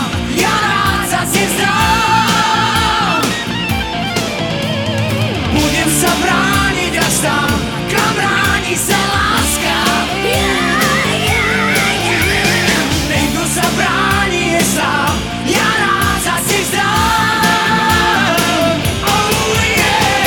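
A pop duet from the film Fontána pre Zuzanu plays steadily and loudly, with sung vocals over a full band of drums, bass and keyboards, the energy holding even throughout with no speaking.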